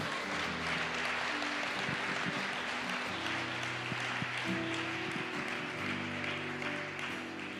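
A church audience claps for Jesus steadily for several seconds, a dense, even wash of many hands, with sustained organ or keyboard tones humming underneath and no one speaking.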